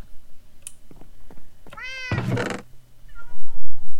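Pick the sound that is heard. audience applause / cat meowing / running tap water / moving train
cat meowing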